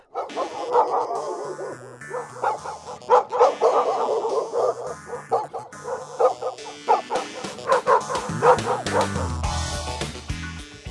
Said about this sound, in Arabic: صوت نباح الكلب وقت يكون حاسس بالخطر وعم بيحاول يخوف الإنسان الغريب اللي عم بدخل على المكان اللي الكلب بيعتبره إله ملكه بيختلف عن صوت نباح الكلب لما يكون عم بضحك ومبسوط